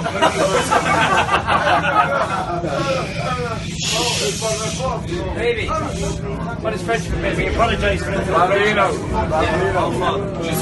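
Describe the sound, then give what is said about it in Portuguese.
A large group of Irish football fans chants and sings together loudly to a small child inside a French metro train, voices overlapping in a rowdy, rhythmic crowd song over a steady low rumble, continuing without pause. “espirituosidade do torcedor irlandês é, no metrô francês para a criancinha, uma cena que a gente ouviu aqui e se, e se deliciou,”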